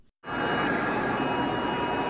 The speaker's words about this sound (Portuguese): Pelo país foram mais de 300 milhões de aparelhos que receberam um áudio estridente e uma mensagem de texto. Este é um teste do Sistema Nacional de Alerta de Emergência. Nenhuma ação é necessária, dizia o alerta.